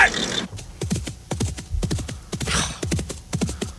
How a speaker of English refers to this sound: Yeah, we're still cantering. We wouldn't be doing that if the horse hadn't seen a snake.